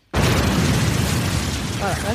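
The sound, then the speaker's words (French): A sudden, loud explosion sound effect, added during video editing, bursts in after a brief silence and rolls on as a dense, roaring rumble for about two seconds, with a faint voice rising near the end. “Je mettrai des bruits d'explosion au montage.”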